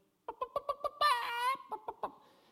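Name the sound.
rooster crowing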